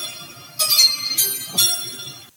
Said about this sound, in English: Now, as we look and address that a little bit and go into the draft, we know that April 30th is right around the corner and it is time for us to hear those beautiful little chimes, and it's almost here.